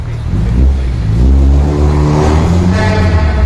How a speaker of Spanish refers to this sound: Seguro que Guillermo Altares identifica este, este tráfico porque es el de una ciudad del oeste de Los Ángeles llamada Culver City